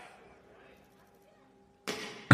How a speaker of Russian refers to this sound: и на демонстрации, когда должны были, в общем-то, это показать, и пульнули металлическим шариком в стекло, оно разбилось. Добро пожаловать на открытие Кибертрака.